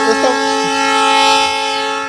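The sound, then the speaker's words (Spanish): A train sounds its horn in one long, loud, steady blast that lasts the whole moment, dominating everything else, as it rolls along the railway tracks next to the colonia Benito Juárez. “Bueno, como ya te pudiste haber dado cuenta, nos encontramos en las vías del ferrocarril, Fernando, aquí este, enseguida de lo que es la colonia Benito Juárez.”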